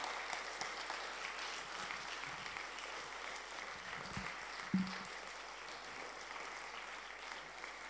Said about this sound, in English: Why don't we give a round of applause and honor the Lord?